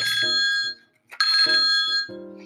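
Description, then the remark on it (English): An electronic phone ringtone for an incoming call from a listener to the Just Joking show plays a bright, tonal melody in two bursts separated by a brief pause. It is loud, with no voices. “Now there's a phone call coming in.”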